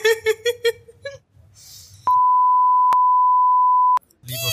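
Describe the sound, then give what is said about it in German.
A loud, steady censor bleep at a single pitch holds for about two seconds, cutting off a man's voice; talking is heard before and resumes right after it. “Ich glaube, wir haben, wir haben das erste Mal in, unserem, in unserer Show jetzt ein Piepsen drin gehabt.”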